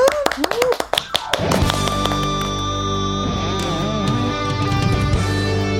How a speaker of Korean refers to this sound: 박수 보내드릴게요.